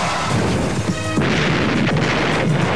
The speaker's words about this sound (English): Let's crash the car into a tree. That way they'll think we were chasing somebody, lost control.